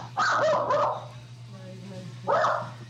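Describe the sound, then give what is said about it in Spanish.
A dog barks a few times, harsh clustered barks early on, then a pause before one more bark, over a steady low electrical hum. “Eh, parece, parece que a un perro por aquí no le gusta la idea, entonces vamos a dejarlo que se exprese.”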